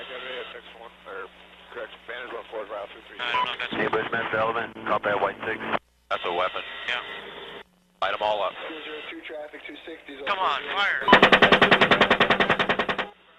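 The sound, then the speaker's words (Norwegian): Muffled radio-style voices crackle for several seconds, then a loud, rapid burst of automatic gunfire from an American helicopter attack in Iraq in 2007, which killed about a dozen civilians, rattles out in an even stream for about two seconds before cutting off. “Her hører du skuddene fra et amerikansk helikopterangrep utført i Irak i 2007.”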